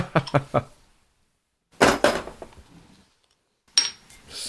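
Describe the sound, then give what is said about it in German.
A beer bottle being opened with a screw clamp: three quick metallic clicks, a pause, then a louder rattling burst with a fizzy tail, and one more sharp clink at the end. “Ich habe eine Schraubzwinge da, das geht auch.”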